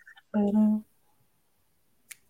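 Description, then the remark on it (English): A brief voiced hum or murmur, then after a pause a single crisp, sharp finger snap rings out on its own. “Snaps and claps around the building.”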